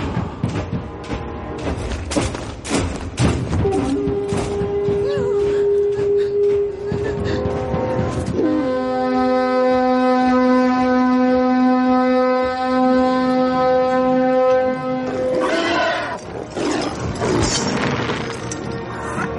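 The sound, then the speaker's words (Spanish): A horn sounds at the gate of Mordor as two giant trolls push the gate's levers: a long, deep, loud blast of about ten seconds, its pitch stepping up partway through, with heavy crashing and rumbling noises before and after it. “Al son del cuerno, dos gigantescos trolls empujan las levas de la puerta.”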